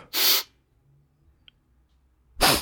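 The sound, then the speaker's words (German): Someone imitates loud, gasping breaths: two sharp, noisy airy bursts, one at the start and one at the end, separated by near silence. “dass ich doch immer so laut und schnappatmig atmen will.”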